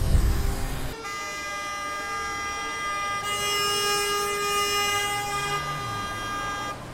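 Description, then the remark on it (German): After a brief burst of low traffic rumble, an ambulance siren sounds loud, holding a steady, bright multi-tone blare for several seconds over the hum of vehicles in a large traffic jam, as drivers fail to form a lane for it. “Ich wollte einfach nur einen Rettungswagen durch und dann gibt es einen riesen Verkehrsstau, weil die Leute es nicht schaffen, mal eine Gasse zu bilden.”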